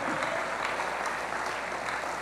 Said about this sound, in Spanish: Dele ese aplauso fuerte al Rey.